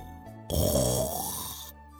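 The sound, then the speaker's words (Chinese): One loud, rasping snore lasting just over a second, a rough throaty rumble with a hissing breathy edge that fades out, heard alone with no talking around it. It is the snoring of little demons who fell asleep after Sun Wukong blew sleep-bugs made from his hairs onto their faces. “不一会儿，小妖们都倒头大睡。”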